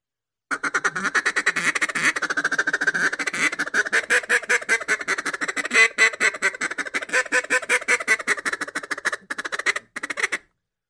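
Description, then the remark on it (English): A duck call blown in a refuge feed chatter, a feed chatter baseline with the illusion of ducks calling each other in the background: a fast, nearly continuous stream of short raspy quacks, loud, running about ten seconds with brief breaks near the end. “It's uh, where I'm doing illusion, where I got feed chatter baseline, I got ducks calling each other in the background.”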